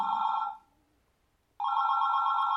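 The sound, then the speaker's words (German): A telephone rings loudly: one ringing burst cuts off, a second of silence follows, then the steady electronic ring starts up again. No voices. “Das Telefon klingelt.”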